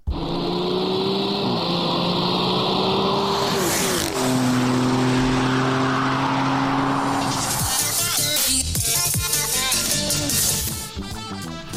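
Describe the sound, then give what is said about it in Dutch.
A car engine revs loudly and steadily, played as a farewell jingle, its pitch climbing and dropping through shifts, then turns rougher and more clattering toward the end. No one speaks. “Maar voor ons, eigenlijk is het, is het, uh, het afscheidsmelodietje.”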